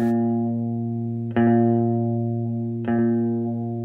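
A country song opens with a sustained, twangy guitar chord, re-struck twice at an unhurried pace, each strum ringing loud and close with no vocals yet.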